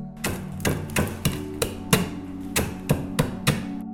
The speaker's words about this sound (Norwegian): Mens eplene koker, passer det perfekt å knuse kavringen.